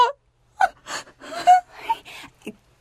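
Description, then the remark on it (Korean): Someone crying and whimpering in fear in a series of short, gasping sobs, with breathy catches and a quivering high-pitched wail in between, fairly loud, without any words, after nearly falling while roped on a climb. “그만 울고 내 말 좀 한번 들어봐요.”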